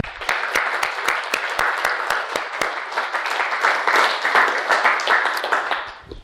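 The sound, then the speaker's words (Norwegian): A crowd applauds steadily for several seconds, many hands clapping in a dense, bright wash with sharp individual claps poking through, holding a fairly even loudness throughout, applauding the people who made pizza. “Vi skal gi en applaus til dere som har laga pizza.”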